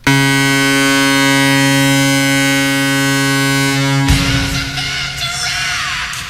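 A Blue Jackets hockey goal celebration: a loud, steady low horn blares for about four seconds, then a sharp cannon blast cuts in and a roaring crowd carries on to the end.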